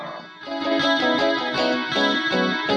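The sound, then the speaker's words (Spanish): A rock song plays with shimmering, chorus-effected guitar chords over steady bass and drums, dense and full at moderate volume, with no voices heard. “Esto se llama nada más y nada menos que … y lo escuchas en retrospectiva especial …, súbele”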